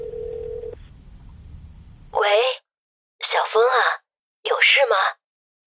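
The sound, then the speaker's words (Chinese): A single short, steady telephone ringback tone sounds over a low line hiss after a familiar number is dialed on a mobile phone, then a thin, phone-filtered voice of a mother speaks in three brief bursts. “拨通了那个熟悉到不能再熟悉的号码。”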